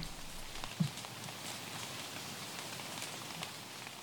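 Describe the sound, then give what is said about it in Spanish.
Soft, steady patter of light drizzle falling through forest foliage in the Alto Vilches sector near Altos del Ircay Natural Park, Maule region, a continuous fine hiss with scattered faint drips and one slightly louder tap near the start. No voices. “como estos sonidos de garúa de bosque registrados por Matías Serrano en el sector Alto Vilches, cerca del Parque Natural Altos del Ircay, en la región del Maule.”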